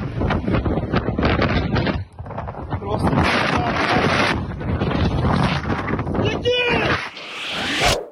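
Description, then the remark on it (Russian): Loud, roaring wind batters the microphone in heavy gusts, a constant rushing blast with brief lulls, and faint muffled voices half-buried beneath it, in eyewitness video of a forest and grass fire covering 40 hectares near the village of Znamenka, with wind gusts up to 15 metres per second. “Очевидец снял видео, это, конечно, ну вот я у себя в сторис публиковала, я что-то заходила, пересматривала, и это ну, я не знаю, это кадры из апокалипсиса. И вот как они звучат.”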